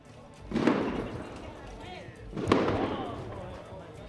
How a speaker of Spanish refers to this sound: Esto ha ocurrido hace apenas unos minutos, con lo que nos dicen han sido unos fuegos artificiales lanzados por dos jóvenes palestinos suficientes para poner en situación de alerta máxima a las tropas israelíes por las laberínticas calles de la ciudad